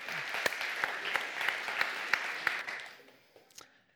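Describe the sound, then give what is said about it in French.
A crowd claps steadily for about three seconds, a dense patter with a few sharper individual claps, then the applause thins and fades out with a last scattered clap or two. “propose qu'on les applaudisse.”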